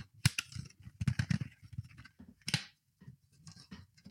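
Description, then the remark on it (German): Crisp rustling and sharp snapping clicks as a CD in flat packaging is opened, with a couple of loud plastic cracks amid quieter crinkling and handling noises. “Ich mache das mal auf, damit man es hört.”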